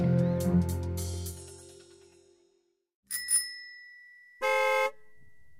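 A bicycle bell rings several times, its tones fading out, then after a short pause a car horn gives one brief, steady, loud honk with no talking.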